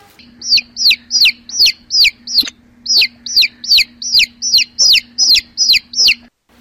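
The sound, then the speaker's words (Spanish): Chicks peep loudly, a steady run of about fifteen high, downward-sliding cheeps with a brief pause partway through, over a faint low hum. “Venga, pollitos, pollitos, pollitos.”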